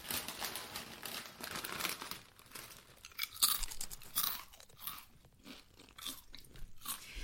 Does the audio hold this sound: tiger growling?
no